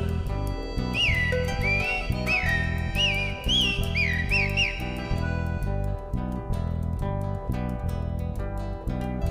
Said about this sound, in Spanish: canta el zorzal.